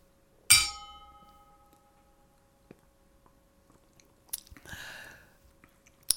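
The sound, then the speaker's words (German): A single bright clink of Super Bock beer bottles touching in a toast, ringing briefly before fading, then a few seconds of quiet followed by gulping and sipping sounds as someone drinks the beer. “Prost. Auf bessere Zeiten.”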